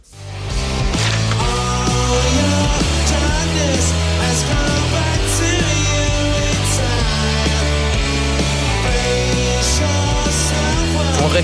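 A rock song plays at full, steady volume, with driving drums and bass under dense electric guitars and a male voice singing the melody throughout.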